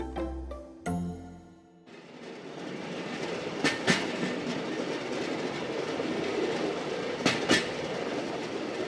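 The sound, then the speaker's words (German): A small rail draisine rolls along the track with a steady rumble, its wheels clacking in pairs over rail joints twice. A brief musical sting opens before the rolling begins. No one speaks. “Rund 45 Minuten nach dem Bahnhof Gravikfjord und 9 Kilometer weiter parken mitten auf der Strecke fünf, sechs Dresinen neben dem Gleis.”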